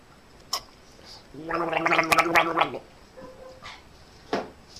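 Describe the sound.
A bubbling gargle to clear a hoarse voice, lasting about a second and a half, with a steady low voiced tone under rapid watery rattling, framed by a few faint clicks and small mouth sounds in otherwise quiet surroundings.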